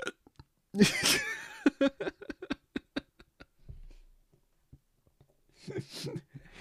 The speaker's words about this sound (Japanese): だってさ、しゃっくり止まんの待ってたら、これ、だって5時になるよ、これ。今4時3分なんだよ、こう喋って、喋ってるの。もう止まんないんだから。いいよ、もうこのままで。